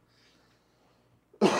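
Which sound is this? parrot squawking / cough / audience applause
cough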